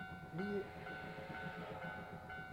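A steam train rolls past with a steady mechanical rumble and droning tonal hum, a brief rising whine breaking in early on, the noise holding fairly even throughout.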